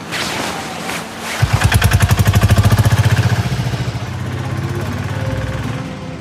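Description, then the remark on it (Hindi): A motorcycle named Nandu starts up and idles with a rapid, steady thumping putter, then settles into a lower, even running rumble. “हे nice bike क्या thanks इसका नाम नंदू है बैठो”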